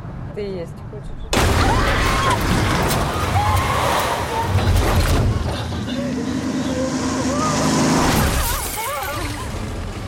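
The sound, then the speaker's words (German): An extremely loud traffic accident in a film erupts suddenly after a quiet opening, followed by several seconds of dense roaring, crunching noise, with agitated voices heard through the chaos. “Das Publikum wird geschockt mit einem extrem lauten Verkehrsunfall, der das Geschehen in eine unerwartete Richtung lenkt.”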